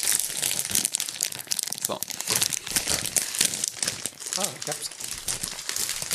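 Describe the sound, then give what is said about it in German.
A plastic snack bag that does not open easily is crinkled and wrestled open, with continuous loud rustling and crackling throughout and a voice briefly audible beneath the noise. “Tüte geht nicht so richtig einfach auf, ne?”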